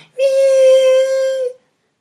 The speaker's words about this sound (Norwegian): Det var noe som hvinte.